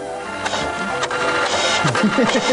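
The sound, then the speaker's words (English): The small inkjet printer built into a Canon NoteJet 2 laptop computer runs, its mechanism whirring and clicking steadily with a few sharper mechanical clacks as the print head moves back and forth. “It's also a high-quality inkjet printer.”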